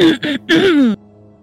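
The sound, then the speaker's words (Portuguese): A loud throat clearing: two short rough bursts followed by a longer gravelly, voiced rasp that trails off, then near silence. “Eu vou chegar, é, sabe, coçando a garganta, tipo.”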